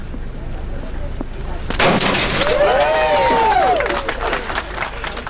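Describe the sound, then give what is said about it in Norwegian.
A single sharp crash of a champagne bottle smashing against the rain-wet aluminium hull of a boat at Larsneskaia quay, followed by a ringing metallic resonance, with a crowd under umbrellas cheering and murmuring outdoors in the rain. “Champagne sildrer ned den regnvåte båtsiden, og jubel hoies ut under paraplyhavet på Larsneskaia.”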